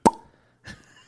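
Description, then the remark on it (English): A voice imitates a champagne cork popping, mimicking the noise that came out of boxer Frank Bruno when Mike Tyson hit him with one punch: one sharp mouth pop with a brief ringing tail, then a short breathy hiss like fizz after a pause. “Mike hit this motherfucker, and a noise came out of Frank Bruno that sounded like you were popping a bottle of champagne.”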